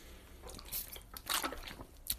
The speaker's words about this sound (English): Sorry, excuse me. I was just drinking some water.